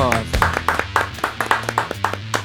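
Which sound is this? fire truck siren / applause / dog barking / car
applause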